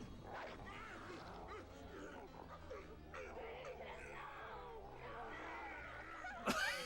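A dog in a film scene whimpers and whines in high, wavering cries that continue almost without pause, over a busy background, with a brief sharp burst near the end.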